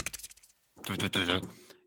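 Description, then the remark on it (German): A short burst of quick, clicky typing on a computer keyboard, several light taps in a row, followed by a person speaking. “Herr Münch, können Sie bitte nochmal auf der Tastatur ein bisschen rumspielen?”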